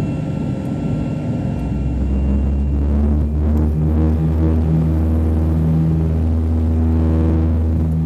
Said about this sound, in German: Das Flugzeug beschleunigte